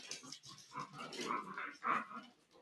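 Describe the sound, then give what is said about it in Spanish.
A female dog whimpers and whines in short, high-pitched bursts, fairly quiet, with a couple of louder whines near the end and no talking. “mientras voy a mear yo también, porque si la perra se mea en el suelo, lo entendemos, porque es un animal”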